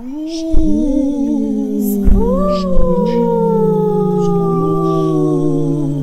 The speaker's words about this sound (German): Doch ein dumpfes Stöhnen, das ihm durch Mark und Bein ging, fesselte ihn an seinen Stuhl.